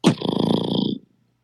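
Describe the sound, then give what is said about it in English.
A single beatboxed inward bassline made by inhaling air through the nose and throat: a loud, buzzy throat rasp drawn in on the breath, held steady for about a second with a growl-like texture before cutting off. “I do inhale air in order to create this baseline, and um, from my nose and my throat”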